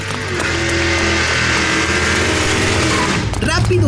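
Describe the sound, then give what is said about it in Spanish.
A car engine roars loudly, a steady dense rumble that holds for several seconds, with a brief shifting swell of noise near the end. “¿y este auto? No me digas que es la nave inteligente.”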